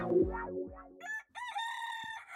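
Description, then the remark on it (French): A rooster crows loudly in the morning, a long strained cock-a-doodle-doo that holds its pitch, coming right after a brief burst of lower, swooping tones. No one speaks. “Ah, tu entends ce chant des coqs.”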